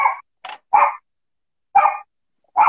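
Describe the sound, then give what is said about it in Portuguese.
A dog barks five times in short, sharp bursts, two quick ones, then a pause before the rest, fairly loud with quiet gaps between and no talking. “Ixi, agora tem um cachorro.”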